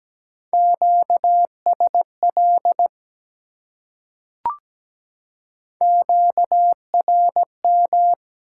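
A steady, mid-pitched Morse code tone keys out dots and dashes at 17 words per minute, sending QSO elements, in two bursts separated by a pause with a single soft click. No voices.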